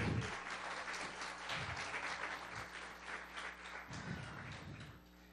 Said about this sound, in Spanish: Primero quiero darle gracias a los músicos que estuvieron esta mañana con nosotros. Démosles un aplauso, por favor.